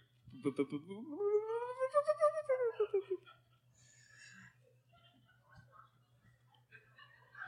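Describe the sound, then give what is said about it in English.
A speaker addressing an audience vocally imitates a growling stomach with one drawn-out, wobbling groan that rises and then sinks over about three seconds, followed by faint scattered noises over a low steady hum. “That was a pretty good uh, voice impression there.”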